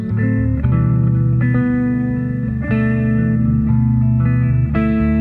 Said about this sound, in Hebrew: והיא סולו, על גיטרה חשמלית בעיקר.